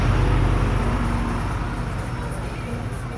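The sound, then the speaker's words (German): Buses rumble past, a loud, steady low engine drone with broad road noise that eases off only slightly over a few seconds. “Und ja, wir lassen jetzt einmal die Busse vor, weil ich finde das unschön, wenn wir ihnen Mädels vorstellen, wie sie nicht sehen können.”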